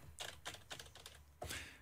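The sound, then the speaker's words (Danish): Several quick keystrokes on a computer keyboard, short clicky taps in an uneven rhythm, moderately loud, ending with a slightly heavier press. “og så er de siddet og kigget, den der, passer sammen med den der, passer sammen med den der, taster vi ind.”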